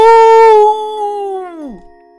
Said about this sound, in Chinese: 猴猴深深地吸了一口气，张开他的血盆大口，发出一声巨响，吼！